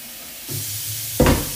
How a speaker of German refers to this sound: Wenn man aber die ganze Zeit irgendwie Geräusche hört, weil ich immer die ganze Zeit irgendwas mit Topf und Teller und was weiß ich mache. Uh, Wasser!